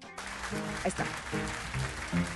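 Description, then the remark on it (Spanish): A live jazz recording opens with a crowd's steady applause, and sustained instrument notes start to emerge through the clapping as a voice speaks briefly. “Vamos a irnos con música”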